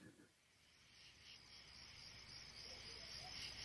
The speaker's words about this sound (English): One night, I woke to a racket of crickets.